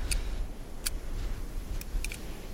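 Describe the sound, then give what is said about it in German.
A lighter clicks several times in sharp, bright snaps spaced irregularly, ending with a quick double strike of the flint, all over a steady low rumble with no talking. “Ihr hört das Klicken eines, äh, eines Feuerzeugs und das Ratschen eines Feuersteins”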